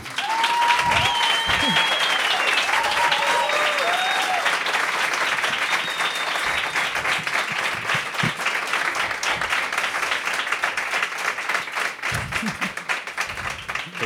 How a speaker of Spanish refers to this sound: que ya estáis tomando asiento y que desde aquí vais a tener la perspectiva de recibir este pedazo de aplauso de nuestro público lunero.